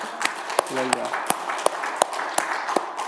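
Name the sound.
audience applauding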